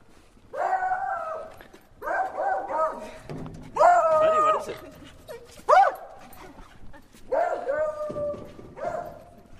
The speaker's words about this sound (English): Okay, apologies. We are passing a neighborhood with many, many dogs.